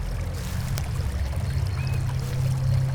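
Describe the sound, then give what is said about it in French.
A stream runs steadily into a small waterfall, producing a continuous, full rush of water with a deep low rumble, without any voices. “en suivant le ruisseau. Tu vois qu'il mène à une petite cascade.”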